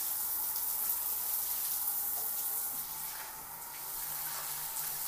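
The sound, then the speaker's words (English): Water sprays steadily from a shower head in a bright, hissing rush as the shower is rinsed a second time, continuous for the whole stretch with a slight dip in the middle. No one speaks. “I'm probably going to spray this a second time because”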